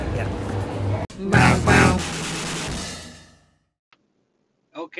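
A paper bag holding a just-collected takeout order crinkles and rustles inside a car for a couple of seconds as someone peeks inside, loud textured bursts that fade into quiet, with a brief faint noise near the end.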